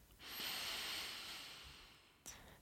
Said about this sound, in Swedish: Andas in.